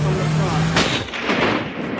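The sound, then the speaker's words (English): A single loud gunshot, the sixth and fatal shot of the John F. Kennedy assassination, which struck Kennedy in the head, cracks out abruptly, cutting off a steady low hum and leaving a rumbling, fading echo behind it. “The sixth and fatal shot, frame 313, takes Kennedy in the head”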